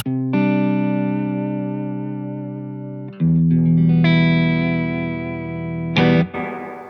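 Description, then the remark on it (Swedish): Electric guitar played through a Source Audio True Spring reverb pedal and a tremolo pedal, a few sustained chords ringing out one after another, loud with a lingering wash of reverb and no talking. “Det här är en True Spring som eh, heter, eh, eller eh, Source Audio True Spring heter Jättebra.”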